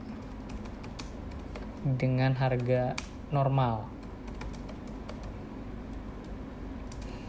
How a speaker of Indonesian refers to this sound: Ini ada ada ada suara ketok ketok kan ketok ketok ya suara apa sih nih suara ketik ketik jadi anggap aja itu suara background